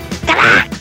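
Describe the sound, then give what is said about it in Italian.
A person imitates a bullfrog's croak: one loud, nasal, buzzy call less than a second long, with no other talking. “La rana bue fa così.”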